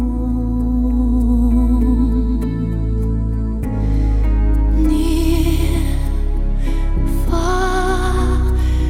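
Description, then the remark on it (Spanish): A sweeping pop ballad, an Oscar-winning original song used in a film's end credits, with a female singer holding long, wavering notes over lush, steady instrumental backing, played loud and continuous with no talking. “La canción pues la conoces, escúchala, disfrútala y suena así.”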